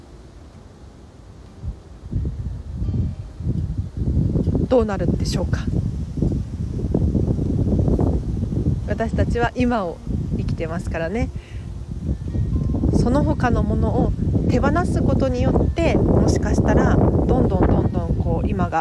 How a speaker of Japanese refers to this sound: 風が強いですねごめんなさい